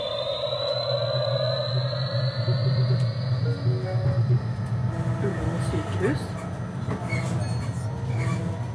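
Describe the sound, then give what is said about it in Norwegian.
Steady rumble of a tram in motion in Oslo, carrying a passenger to a lecture at the University of Oslo, with a rising electric motor whine and a high squeal early on, clicks and rattles throughout, and a faint voice talking in the background. “Thea sitter på trikken på vei til en forelesning på Universitetet i Oslo.”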